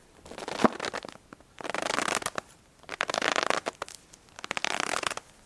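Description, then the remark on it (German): A small cardboard box of potato starch is squeezed to imitate footsteps in snow, giving a brief crunch followed by three slower, gritty crunching squeaks at a steady pace, with no talking. “Den Schneeschritt kann man eigentlich ganz einfach mit einer Schachtel herstellen. Das ist ein kleiner Karton mit Kartoffelmehl drin.”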